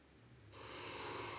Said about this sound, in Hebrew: ואנחנו נתחיל את הסיבוב הראשון שהריכוז שלנו בו הוא בבטן. אז נשימות לבטן.